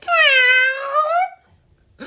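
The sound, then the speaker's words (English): A person imitates a cat with one long, drawn-out, slightly wavering meow, loud, followed by a short silence and a brief noisy burst at the very end. “So, in our slightly strange um, openings to our recent podcast, we're now obviously moving on to Cat and Mouse.”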